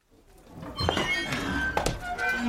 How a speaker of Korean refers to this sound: 가게 문을 열고 선배가 들어왔다.